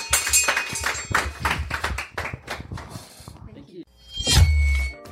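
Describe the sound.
A burst of studio audience applause on the Matt Brown Show in Johannesburg, with many hands clapping rapidly and overlapping voices, fading after a few seconds, followed by a brief louder rumble near the end.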